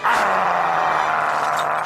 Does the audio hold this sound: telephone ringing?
no